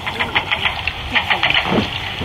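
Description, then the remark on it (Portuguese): Tinny, band-limited underwater walrus calls, picked up by a hydrophone from boats, play through a small loudspeaker: a run of quick knocking pulses, then a bending, groaning tone, over a steady engine-like hum; walruses make the sounds by pushing air through pouches in their throats. “Os barcos aproximam-se e com a ajuda de um hidrofone e um altifalante, escutamos as conversas subaquáticas.”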